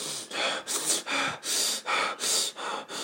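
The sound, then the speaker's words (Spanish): A voice imitates heavy, angry breathing: about eight forceful, rhythmic breaths in and out, loud, with a harsh, noisy rasp and no talking. “Así respirando bien cabrón, yo como, verga, verga, güey.”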